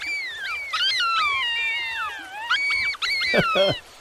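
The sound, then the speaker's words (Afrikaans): A pack of jackals howls in the distance, several high, wavering voices overlapping in a continuous chorus, with sharp yipping bursts near the end and no one speaking. “En toe op 'n dag hoor jakkals 'n trop jakkalse in die verte huil.”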